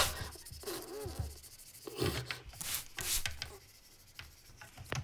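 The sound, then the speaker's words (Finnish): Brisk, scratchy scrubbing of a very dirty kitchen cooker hood with a toothbrush and scouring agent, repeated in uneven bursts of rasping strokes with short pauses between them, moderately loud and without speech. “onpas tämä nyt penttynyt. Minäpä hammasharjalla.”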